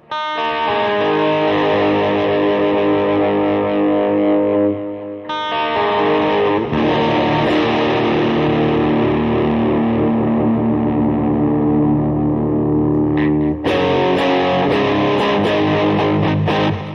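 An out-of-tune electric guitar with an overly hot pickup rings out in loud, heavily overdriven chords, three long sustained strums that buzz and fizz with harsh distortion, each held several seconds. No one speaks.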